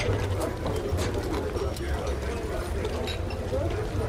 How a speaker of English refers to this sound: chickens in the background, a dog.